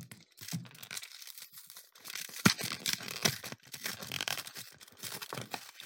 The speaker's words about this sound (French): Alors là, vous entendez le packaging qui s'ouvre, le petit papier à lui autour.